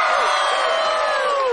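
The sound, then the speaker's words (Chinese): A crowd at a gymnastics show cheers and applauds to welcome Dora before her ribbon dance, loud and continuous, with high whooping voices rising over a dense wash of noise for the whole brief stretch. “在开始之前，我们要请一位特别的体操学生来表演彩带舞，让我们掌声欢迎 Dora。”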